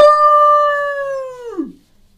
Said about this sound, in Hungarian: a távolban, hallasz ilyen vízhangot, mint hogyha válaszolnának erre az üvöltésre.